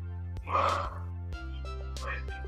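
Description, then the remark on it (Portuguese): A person yawns from sleepiness, a drawn-out breathy vocal exhale, followed a moment later by a softer, shorter breathy sound over a steady low hum. “Tô, rapaz, eu abri a boca de sono aqui.”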